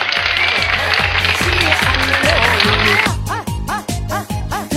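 A burst of dense applause and cheering rides over a steady, thumping music beat for about three seconds, then fades out, leaving the upbeat music playing on its own.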